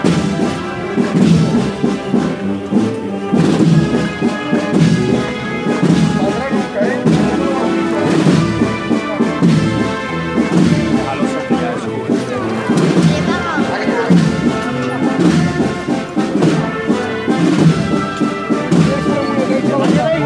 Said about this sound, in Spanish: Suave. ¡Ay, con compás! Como suena un paso de palio de cerca.